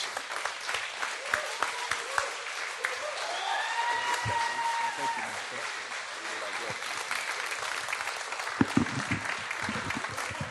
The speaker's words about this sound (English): Please give yourselves a round of applause. Thank you so much.